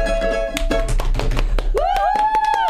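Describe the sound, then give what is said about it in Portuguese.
Hands drum on a hard surface in a quick, uneven rhythm of sharp slaps and taps, with a sustained wavering vocal tone joining partway through. “Toma, Afonso Padilha, eu batuquei aqui, ó.”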